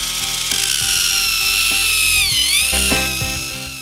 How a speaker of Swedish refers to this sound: Ja en eltandborste vars batteri håller på att ta slut.